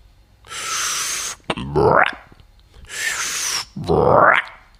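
Cartoonish gulping of water by a frog on a hot day, repeated twice: each time a steady rushing hiss, then a loud, rising, boing-like glug. No one speaks.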